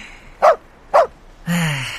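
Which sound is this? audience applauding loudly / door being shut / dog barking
dog barking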